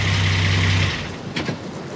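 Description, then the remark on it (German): A car engine idles with a steady low hum during a border inspection on entering the GDR, then is switched off abruptly partway through, leaving faint rustling and a brief mechanical clunk in the quiet afterward. “Herr Landsberger, Motor abstellen.”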